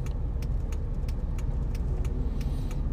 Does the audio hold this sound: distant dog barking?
no